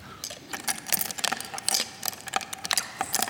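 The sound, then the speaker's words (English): Rapid, irregular clicks and light metallic ticks tumble over each other in a dense, reverberant patter, bright and crisp, panned left and right in stereo, with no voices present. “And it's panned as well, it's going left and right.”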